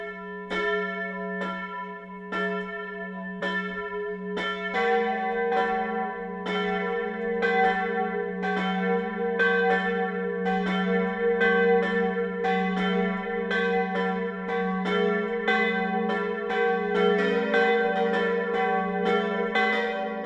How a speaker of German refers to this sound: Das Mittagsläuten kommt heute von der katholischen Pfarrkirche Marie Lichtmess im niederbayerischen Lindkirchen.